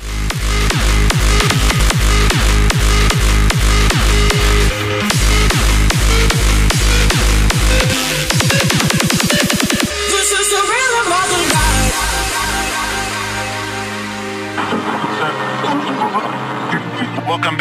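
A loud, hard-hitting electronic dance track with a pounding four-on-the-floor kick, dense synths, a short breakdown with a rising sweep midway, then the heavy beat returns.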